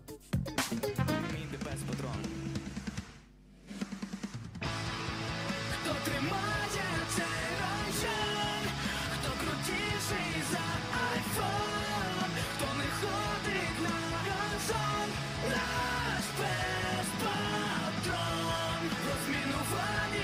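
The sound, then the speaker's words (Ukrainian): A sung song about the dog Patron, covered by TikTok users, with full, loud backing music plays steadily throughout, pausing briefly near the start before the vocals and instruments continue without a break. “Наш пес патрон, отак е, е Тікток користувачі переспівують ще е, про е, власне нашого пса патрона.”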